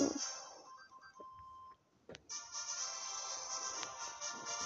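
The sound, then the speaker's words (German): A mobile phone sounds off with a thin electronic beep, a short click, then a busy, tinny ringtone-like melody that keeps playing steadily at a modest volume, with no one talking. “Was ist los mit dir, Handy?”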